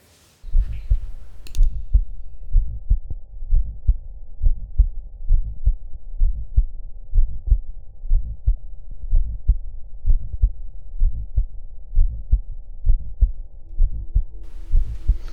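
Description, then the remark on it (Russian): A steady heartbeat heard through a stethoscope, about one and a half beats per second, with a soft musical Still's murmur carrying several faint humming overtones, in a patient whose echocardiography showed false tendons of the left ventricle, one running along the interventricular septum. No one speaks. “Тут шум имеет несколько обертонов, необычное явление для шума и при эхокардиографии были выявлены ложные хорды левого желудочка, в том числе одна из них была расположена вдоль межжелудочковой перегородки”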